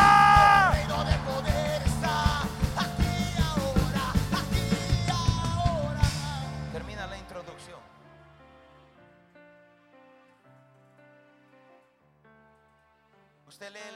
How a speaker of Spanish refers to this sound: Alguien va a dar un grito de guerra.